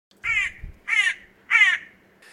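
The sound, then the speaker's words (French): A hooded crow (Corvus cornix) caws three times in a steady rhythm, each harsh, raspy call loud, with a fourth call just starting at the end. “Il y a la corneille mantelée, qu'on voit peu en France, mais qui existe dans le sud”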